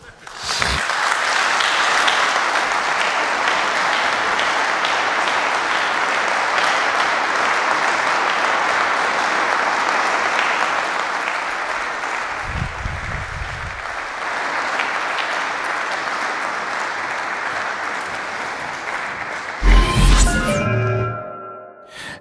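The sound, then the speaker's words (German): Sustained applause for Carola Wille from a large conference audience lasts about twenty seconds, dense and steady, with a brief low rumble partway through, then fades out as other sounds take over at the end. “Großen Dank, Chapeau und Applaus für Carola Wille.”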